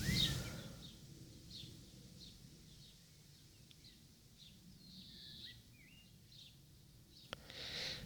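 Faint birdsong, with scattered high chirps and short trills repeating over a quiet outdoor hush. No one speaks.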